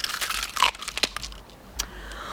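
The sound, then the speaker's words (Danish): An eggshell cracks as a cuckoo chick hatches: a run of dry, crisp crunches and crackles in irregular bursts, then a couple of sharper snaps after a brief lull. No one speaks. “Åh oh, nej, nej, nu knækker det.”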